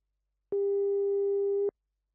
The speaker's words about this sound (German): Oh, was ist das denn? Jetzt klingelt das Telefon schon wieder.